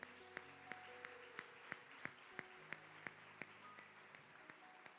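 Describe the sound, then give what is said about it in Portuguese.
A large church audience applauds the Lord steadily, with sharp claps landing in a regular rhythm over a dense wash of clapping, and a faint sustained musical tone underneath. “Se você trouxe alguém que está pela primeira vez, aleluia, vamos aplaudir o Senhor.”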